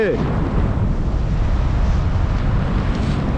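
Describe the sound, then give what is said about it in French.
Strong wind rushes and buffets against a microphone in a steady, loud roar with heavy low rumble, continuous for the whole few seconds, during a paraglider flight about 500 meters high, flying straight into a south wind at 30 to 35 and sinking about 1 meter per second. “Alors voilà, le vent il vient, du sud. Là, je suis pile face au vent, donc j'avance euh, euh, entre 30 et 35.”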